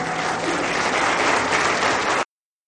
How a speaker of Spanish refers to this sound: un aplauso al Señor, que es muy bueno.